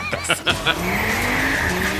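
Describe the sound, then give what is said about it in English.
A car engine revs loudly with a sustained high tire squeal, preceded by a few sharp bursts, like a vehicle skidding hard, in a video game announcement trailer showing a new car. “This is more about this car uh, commercial for this new car than it is about it being in the game.”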